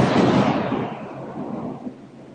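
nature, rain with thunder

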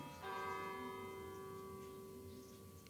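ambience, village church bells ringing

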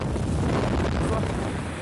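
nature, strong storm wind

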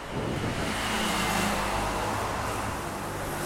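vehicle, car road noise

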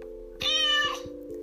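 animal, cat meowing

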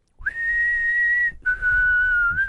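whistled tune

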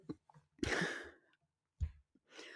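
human body sound, cough

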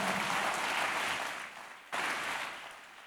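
crowd, audience clapping hands

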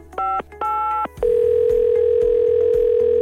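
signal or alarm, telephone dial tone

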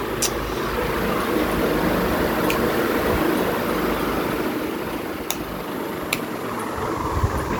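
household object, electric fan running

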